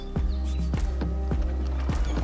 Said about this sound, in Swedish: På vägen hem tar hästdroskan en omväg genom Hagnäs för en tur över Långa bron.